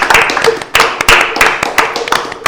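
A short burst of clapping from a few hands, quick uneven slaps overlapping into a loud, bright patter for a couple of seconds, with a faint voice mixed underneath.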